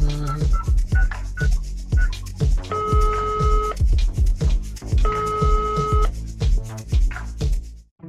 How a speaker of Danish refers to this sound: Jeg ringer til politiet nu.